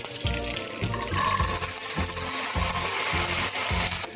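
Chopped beans sizzle in hot oil in a pan with mustard seeds, curry leaves and a pinch of asafoetida. A steady crackling hiss runs throughout, while soft low thumps pulse regularly underneath. No one speaks.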